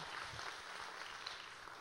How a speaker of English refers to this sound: So let's all give a big another round of applause for his 30th birthday.